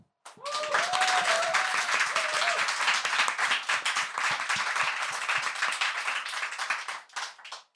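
A crowd bursts into sustained applause, dense overlapping clapping that stays loud for about seven seconds before fading, with a few cheers or whoops rising over it early on.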